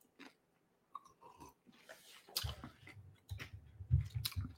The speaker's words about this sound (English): Excuse me for eating pretzel chips.